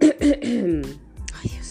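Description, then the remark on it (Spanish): A person clears their throat several times in quick succession, rough guttural rasps followed by a short voiced hum and a final throaty bump. “estos carraspeos más desagradables, pero bueno, es lo que hay no las voy a vender gato por libre.”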